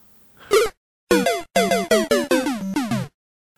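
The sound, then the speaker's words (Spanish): A video game losing sound effect: a short synthetic jingle of buzzy, brassy notes stepping quickly downward in a bouncy rhythm, loud with no one talking. “Bien, como el sonido que acaban de escuchar les habrá anticipado que debiera ser, que, no sé en qué quedamos, pero el sonido de la pérdida de algún juego.”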